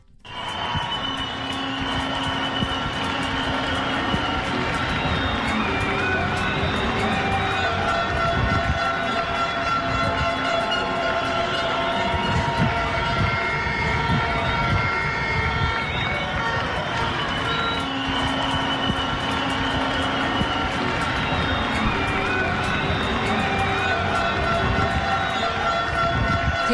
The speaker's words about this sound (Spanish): Escuchemos nuevamente, Otto, por favor, esos aplausos porque es el homenaje al cual nos sumamos esta noche.